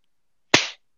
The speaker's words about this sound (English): Uh, can you clap me off?